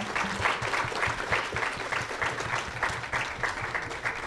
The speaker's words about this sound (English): let's have a huge round of applause for our wonderful panel.